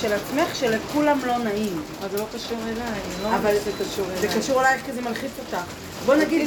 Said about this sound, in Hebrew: לא זה הרעש של הגשם